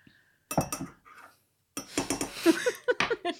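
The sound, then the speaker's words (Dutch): A spoon stirs a drink made with Verdecho wine in a glass jug, with rapid, ringing clinks and scrapes in two bursts, a short pause between them, and no talking. “En dan maken we het kanneke met de Verdecho. Even roeren.”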